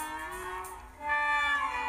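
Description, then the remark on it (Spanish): A cat meows in two drawn-out calls, the second louder and longer than the first, with no talking around it. “un gato fortachón y atirado al que llamaba Polidoro”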